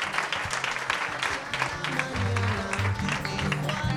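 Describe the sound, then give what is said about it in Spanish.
An audience applauds steadily for about four seconds, a dense, even clatter of many hands clapping, with low humming notes sounding underneath. “Un fuerte aplauso, un fuerte aplauso, por favor.”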